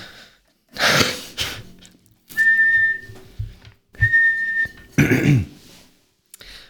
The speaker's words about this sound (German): Hast du eine Rape-Pfeife hier?